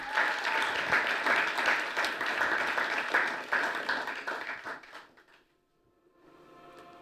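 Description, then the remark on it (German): An audience claps steadily for about five seconds for a guest whose pictures were shown, a dense, bright patter of many hands that fades out, followed by a brief quiet and soft room noise. “Gebt dir nochmal einen Applaus.”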